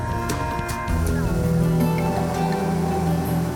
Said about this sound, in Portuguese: Deixamos a cidade de Breves e seguimos de barco para a cidade de Melgaço